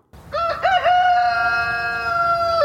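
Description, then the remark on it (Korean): A single loud rooster crow, played as a reference recording, starting with a few choppy notes before stretching into one long, sustained cock-a-doodle call. No talking. “한번 했죠? 이 닭이?”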